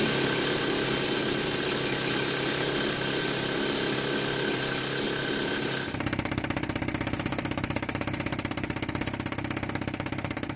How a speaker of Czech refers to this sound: Ano, v tuto chvíli tam jednak slyšíme zvuk zbíječky, případně vrtacího kladiva. Samozřejmě tato zařízení mají v různých částech eh, revíru nebo dolů svá, svá pojmenování.